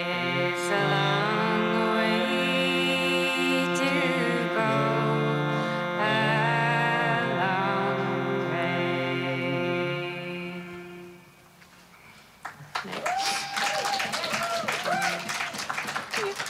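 A woman sings a slow song with long, sustained notes for about eleven seconds. The singing then fades and gives way to scattered clapping and noisy crowd sound.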